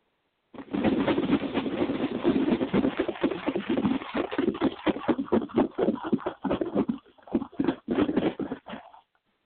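A box of paper slips is shaken steadily for about eight seconds for a blind bag of the week draw, a dense rhythmic rustling and rattling that loosens into separate shakes toward the end. No one speaks.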